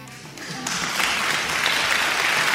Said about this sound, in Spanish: aplausos público